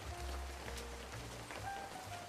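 Steady rain patters on a Manhattan street on a cold, wet autumn night, a continuous soft hiss with a low rumble of traffic underneath. No voices are heard.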